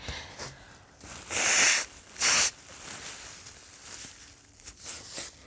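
Someone blows their nose: two loud, forceful, hissy blasts, the first longer and the second short, with quiet background sound around them and no talking.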